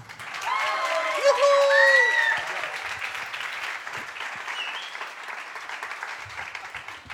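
An audience claps steadily for several seconds for a five-piece band after its members introduce themselves, a dense, even patter of many hands, with a few cheers and whoops rising over it near the start before the clapping carries on alone.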